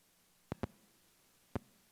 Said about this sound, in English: Is this too bothersome? The, the static or anything? Okay, I'm hearing static, but could just be me.